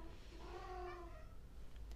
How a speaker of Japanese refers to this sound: ちょっとね猫が、えー、ニヤニヤうるさくて申し訳ないんですが